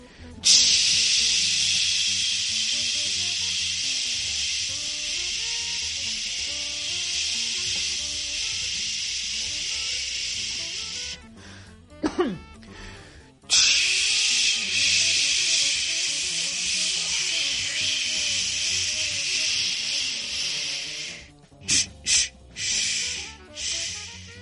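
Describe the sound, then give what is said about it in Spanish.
A steady, loud hissing stream of urine in a bar bathroom runs for about eleven seconds, pauses briefly, then flows again before ending in a few short spurts and drips. No one speaks. “Una cascada, una cascada de orín.”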